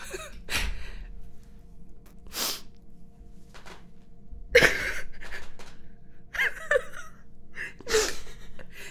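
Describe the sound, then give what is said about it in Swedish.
Quiet crying, with shaky gasping breaths and sniffles coming in uneven bursts every second or two, and occasional soft whimpers between them. No words are spoken. “nu gråter vi igen.”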